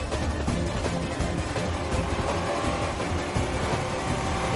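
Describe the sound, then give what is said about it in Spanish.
A taxi and a hitman's SUV race side by side in a chase through traffic, their engines roaring in a dense, steady wall of noise that stays loud throughout, with no voices. “Born y el sicario conducen en paralelo.”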